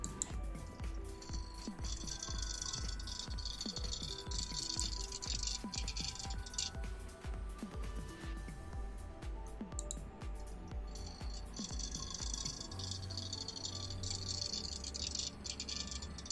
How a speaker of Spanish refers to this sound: Es el ventilador, es un ventilador, güey. Con algo está rozando uno de tus ventiladores, güey. Tal vez está, este, está desnivelado y está rozando.